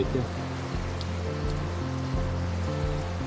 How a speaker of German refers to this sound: wenn so, so wenig Wasser fließt. Bei uns in Trenta gibt es ein Sprichwort, wenn treffst du Wasser auf dem Weg, musst du probieren, weil wenn gehst du ein bisschen nach oben, gibt es keine Quelle mehr, weil dieses Wasser fließt durch den Karst.